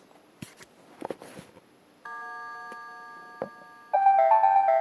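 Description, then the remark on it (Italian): A few handling clicks and taps, then an electronic device that can read, write, and has a music editor, clock and calculator is switched on: a steady synthetic chord hums, followed by a brief, louder series of rising beeping notes, with no talking. “Ecco, la la la la la la ci fa questo suono qua, ecco,”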